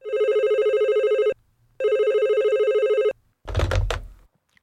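A telephone rings twice in steady, evenly spaced electronic tones, each lasting over a second, as someone places a call, followed by a short burst of rustling noise as the ringing stops. No one speaks.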